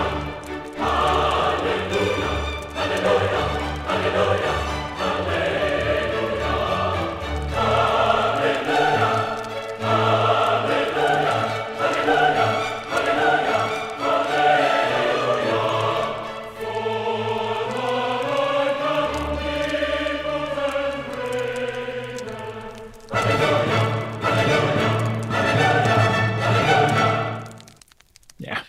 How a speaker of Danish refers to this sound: Så skal vi ikke lige prøve at høre en lille stump af Halleluja-koret fra Handels Messias. Halleluja.